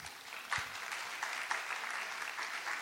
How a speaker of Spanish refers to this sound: muchas gracias, un aplauso